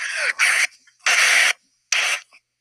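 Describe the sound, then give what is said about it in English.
Loud crunching of Doritos tortilla chips in three bursty, noisy chunks, each lasting about half a second, separated by brief quiet gaps. “I don't know how you're getting static from getting a new mic, but it That's sounds... not static. It's Doritos.”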